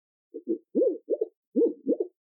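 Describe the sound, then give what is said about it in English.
Low, throaty warbling of a pet pigeon in two short bursts, each made of a few quick, rolling coo-like notes, fairly soft with nothing else around it. “The typical cooing noise shown in movies is not accurate. It's actually a warble, and they tend to spin in circles when they do it.”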